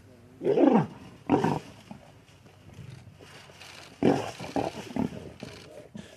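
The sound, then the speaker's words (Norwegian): A male lion roars in deep, rumbling bursts, trying to make contact with a female lion on the other side of a wire fence: two loud calls together, a quieter pause, then another strong roar trailing into a series of shorter grunting huffs. “En hannløve forsøker å få kontakt med en hunnløve på andre siden av ståltrådgjerdet.”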